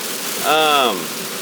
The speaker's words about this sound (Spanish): Hoy, Dios mío, voy por una cantidad de lluvia. Perdón que estoy manejando eso.